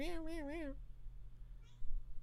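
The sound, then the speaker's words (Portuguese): A female cat comes up beside the speaker and gives a single drawn-out, wavering, loud meow, followed by a brief faint mew and low background hum. “Ela chega aqui do meu lado e começa a miar e é isso.”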